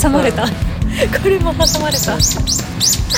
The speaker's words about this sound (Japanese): またあほら鳥の声が聞こえましたみんな 大自然の中